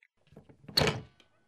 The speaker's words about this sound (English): So sorry, the door just seemed to close on its own.